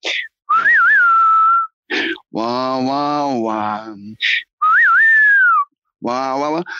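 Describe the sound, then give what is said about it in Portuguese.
A person whistles a short, twangy spaghetti-western melody, alternating with bursts of sung, wailing vocal notes by a woman; the whistle-and-voice phrase plays twice with brief pauses. “a gente sempre vai associar o, o o Western Spaghetti, como diz o Chino, a, aquele assobio que faz assim”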